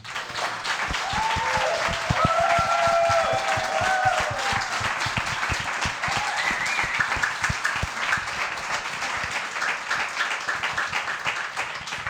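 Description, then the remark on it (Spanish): Sustained applause from an audience for musician Eduardo Cabra on the program El Hombre Luna, about twelve seconds of dense overlapping claps at a steady loudness, with a few faint cheers or whistles rising above the clapping. “Por eso es más que merecido este pedazo de aplauso.”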